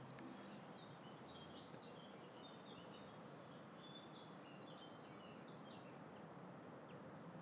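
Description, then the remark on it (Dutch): Scattered birdsong chirps and trills drift over a constant low roar of road traffic on the road of the Van Noord bridge, an even wash of outdoor ambience with no voices. “Nou, ik hoor ehm, eh, sowieso vogels, maar ook de weg van de Van noordbrug Je hoor je heel goed, hè?”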